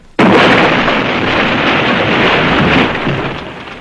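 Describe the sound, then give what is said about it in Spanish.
A grand piano, launched into the air by an unusual machine, flies over trees and crashes down onto the meadow of Acton Round, Shropshire, England, in 1991. It lands with a sudden, heavy impact and a loud, noisy roar of splintering wood and strings that holds for a few seconds before fading off. “Un gran piano de cola vuela por sobre los árboles para caer con sonoro estruendo en la pradera de Acton Round.”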